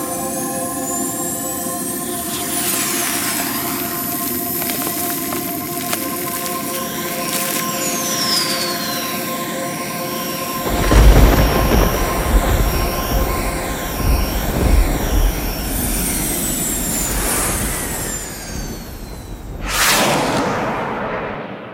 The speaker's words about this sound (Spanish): Los motores de la velocidad luz se activaron y partieron de Saturno.